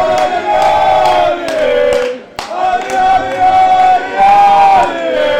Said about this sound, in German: Ähm, auf jeden Fall der lauteste Applaus bis jetzt für Odi, kann man sagen.